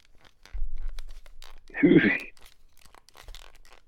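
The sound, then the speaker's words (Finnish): A brief creak of a black plastic Elikon 535 film camera being squeezed, a single crackling squeak lasting about half a second, with faint talking and handling noise around it. “Ja tässä on mun mielestä kun tätä puristaa, niin tämä kuulostaa tältä sieltä.”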